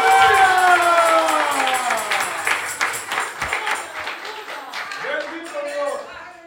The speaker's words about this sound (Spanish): Fuerte el aplauso y grito de alabanza a la gloria de Jehová.